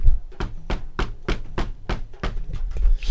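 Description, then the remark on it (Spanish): A steady series of about nine firm knocks on a hotel door at night, evenly spaced in a quick rhythm, each a dull, solid thud with no voices heard. “El que le toque la puerta del hotel es el que no va a al mundial.”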